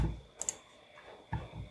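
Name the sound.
computer mouse click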